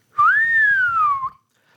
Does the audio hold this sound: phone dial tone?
no